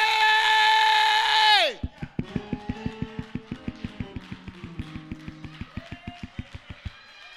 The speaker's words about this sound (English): Why are you clapping?